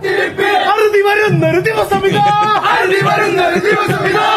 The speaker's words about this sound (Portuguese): Essa é a torcida argentina que tá no Catar.